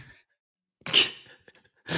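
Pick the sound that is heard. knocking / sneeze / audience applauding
sneeze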